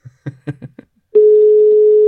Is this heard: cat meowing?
no